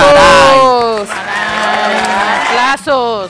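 Loud cheering with high, sliding vocal whoops and shouts that surge, dip briefly near the end, then rise again; no distinct clapping stands out beneath the voices.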